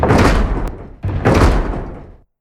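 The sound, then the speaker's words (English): Two heavy, booming blows from a mighty hammer strike large wooden double doors, each loud with a long reverberant tail, the second following right after the first fades. No voices. “A pounding at two large double doors stopped their bickering.”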